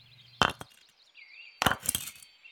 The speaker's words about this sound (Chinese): 还没到的时候，哎，他就听到了某种声音，嗯，好像是什么石头碰撞在一起的声音。乖乖，你也听看看，嗯。